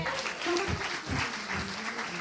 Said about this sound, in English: Everybody say …. Inspirational music. Clap it up for some good music, y'all.